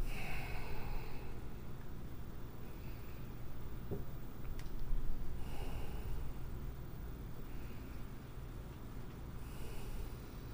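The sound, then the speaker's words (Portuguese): Slow, deliberate breathing with airy exhales of about five seconds each that rise and fade over a low steady background hum. No one speaks. “Você exala em cinco segundos.”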